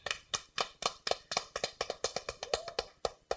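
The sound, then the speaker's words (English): A few hands clap in a quick, steady rhythm, about a dozen-plus sharp claps over a few seconds, moderately loud, with no one speaking, applauding a guest from Brooklyn after an interview. “Brooklyn's finest, Brooklyn's Round own. applause.”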